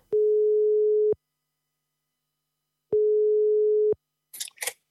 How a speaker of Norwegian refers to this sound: Vi ringer.